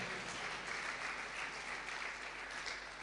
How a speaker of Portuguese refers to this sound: Clap for this servant. Salva, de palmas para esse servo.